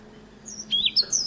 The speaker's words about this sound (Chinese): 黄山雀，那它的旋律是怎么样呢？上行的，哒哒滴哒哒滴哒哒滴哒，有没有？